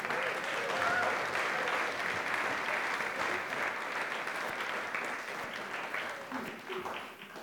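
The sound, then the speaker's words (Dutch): Sustained applause from an audience for children fills the whole stretch, a dense wash of many hands clapping, steady and loud before tapering slightly at the end. “Applaus voor de kinderen.”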